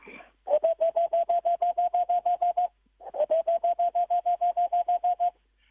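An owl gives two runs of quick, evenly spaced hollow toots on a steady pitch, each run lasting about two seconds with a short pause between, clear and alone in a quiet night.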